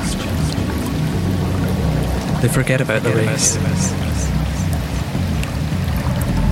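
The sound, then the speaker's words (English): A waterfall roars steadily into a river, a loud, unbroken rush of churning water filling the whole clip while a voice speaks briefly over it. “Upon reaching the waterfall, they stare as water stirs the river and drowns their endless chatter.”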